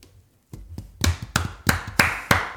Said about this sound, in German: Und wenn es euch gefallen hat, dann könnt ihr ruhig mal klatschen.